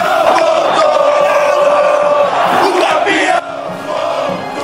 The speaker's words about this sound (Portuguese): Márcio Espímpolo, você tá ouvindo a torcida do São Paulo? Tá empolgada a torcida tricolor.